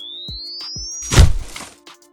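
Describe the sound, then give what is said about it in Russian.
A defibrillator shock discharge on a patient on an operating table, after adrenaline: a thin electronic whine climbs steadily for about a second, then breaks into one loud, heavy thump with a crackling burst that fades quickly. Faint soft knocks come beforehand. “Адреналин, дефибриллятор, отошли, разряд”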